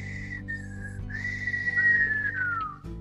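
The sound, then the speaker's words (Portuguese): A person whistles a short melodic phrase, a few sustained, gliding notes with a brief pause after the first, clear, ending with a downward slide, over a low steady hum. “Com frases assobiadas.”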